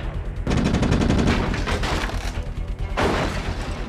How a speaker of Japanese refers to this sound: 機関砲が全く効いてない銃でかすぎてブルローバーじゃ太刀打ちできないっす